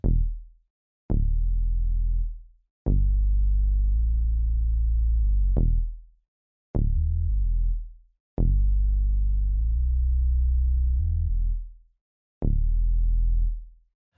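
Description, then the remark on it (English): A deep synth bass in a chill hop track plays sustained low sub tones in a rhythmic pattern, sidechained to the kick drum, each note starting with a short bright bite before settling into a warm rumble, with brief gaps between phrases. “The bass sound has a bit of bite to it, but it's primarily low sub frequency tones, so you might not get the full effect unless you're listening to this on speakers or headphones.”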